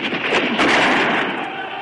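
gunshot

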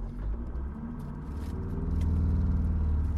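car driving

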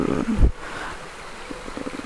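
flowing river water

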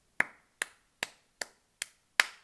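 applause

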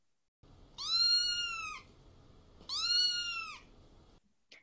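cat meowing

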